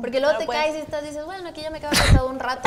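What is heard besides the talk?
sneeze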